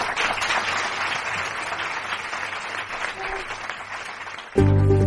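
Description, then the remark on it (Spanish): People clap steadily for several seconds in applause for a female company chief executive, a dense crackling patter of many hands, before it cuts abruptly into a loud, sustained musical tone. “Le damos un aplauso a la consejera delegada.”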